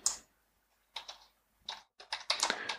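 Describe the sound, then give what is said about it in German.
Quick, crisp key clicks come in irregular bursts with short pauses as someone types a search on a mobile phone's keys. The tapping is quiet, with no voices. “Das ist aber ein krasses Handy, das sie haben. Da hört man da richtig so Tasten.”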